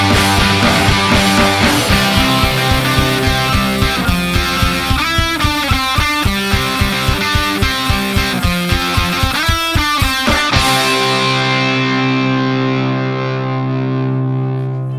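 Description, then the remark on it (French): Loud Oi punk rock played by a full band from Paris, from a 2018 release, with heavily distorted guitars over a fast, steady drumbeat, finishing on a final crashing chord that rings out and slowly fades. “un petit peu de Oi pour refermer ce focus consacré à la programmation du Rao Fest avec le groupe parisien”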